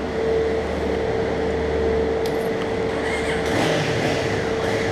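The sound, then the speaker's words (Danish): A motorcycle engine, being started after failing to start, rumbles continuously at a steady, loud level, with a couple of brief revs partway through over a constant mechanical drone. “han er på faven endnu, og kan ikke starte sin motorcykel, så vi må se, om han bliver hjulpet i gang, eller om han kommer at trække det hele vejen hernede, når alle bilerne er kørt af.”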